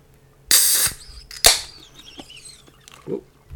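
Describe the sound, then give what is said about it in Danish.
A can of Guinness (4.2 percent), chilled in a fridge for about an hour, cracks open with a loud hissing burst, then a sharp second snap and a trailing fizz as the foam settles, with a faint low murmur at the end. “Hej, det var en skæg lyd, der kom ud af den.”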